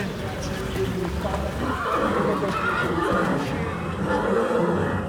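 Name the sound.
horse neighing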